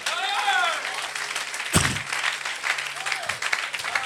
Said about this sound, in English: Please, if you are clapping, clap, clap, clap, clap.